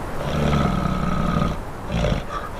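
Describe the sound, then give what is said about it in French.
A very large polar bear's heavy, cavernous breathing, deep and rumbling, in two long, rough breaths with no one speaking; the bear is in the extreme cold of the Canadian Far North. “J'entends le souffle lourd et caverneux d'une très grosse bestiole qui résiste aux températures extrêmes du Grand Nord canadien.”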